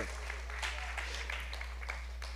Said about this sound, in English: yeah you can clap come on you can clap for that praise god